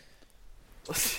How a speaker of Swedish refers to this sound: Jävla oskönt! Han går alltså och snyter sig medan jag pratar